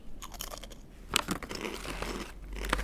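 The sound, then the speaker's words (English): Crunching of fried oyster mushroom crisps, fried in sunflower oil and made in Wellington, New Zealand: a rapid series of sharp, brittle crackles with a few louder bites standing out, continuing steadily for a few seconds with no talking. “They do oyster mushroom crispy chips.”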